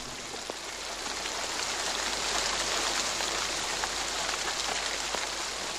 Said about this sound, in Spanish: Solo quedaba la luz de la noche, el siseo de la lluvia como un murmullo de grillos